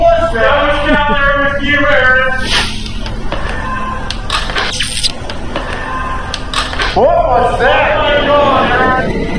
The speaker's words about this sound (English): And as he snaps a picture, we both hear an unexplained blood curdling scream.